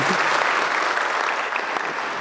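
A crowd claps steadily, dense and even throughout, a sustained burst of many hands with no voices rising above it, applauding news of 136 pledges for the coming year after Consecration Sunday.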